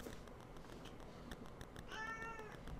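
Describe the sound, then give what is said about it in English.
A cat lets out a single drawn-out meow near the end, clear, over a steady rumbling background noise with no talking. “Even my cat.”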